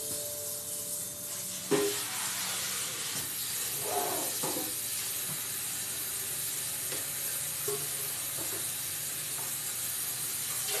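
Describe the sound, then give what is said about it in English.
A loud kitchen sink sprayer, used by a husband doing the dishes, gives a steady hiss of spraying water throughout, broad and constant, with faint clinks and knocks of dishes in the sink underneath. No one speaks. “I don't use the sprayer because I don't like how loud it is.”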